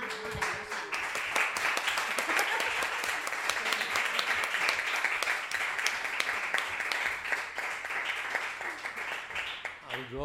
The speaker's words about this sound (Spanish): O sea, un aplauso para estas dos personas